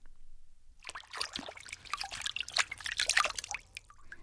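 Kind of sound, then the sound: nature, rain dripping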